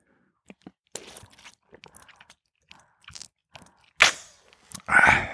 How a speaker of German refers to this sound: Darauf in Ermangelung von was anderem erstmal ein Schluck Wasser aus der Trinkflasche.